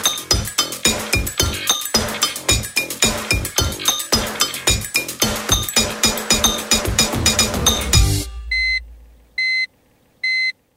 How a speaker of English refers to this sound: What sound's that? Not a chuck reversing. No, it's the sign that we've left the fridge open